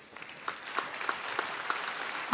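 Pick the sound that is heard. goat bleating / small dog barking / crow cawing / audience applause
audience applause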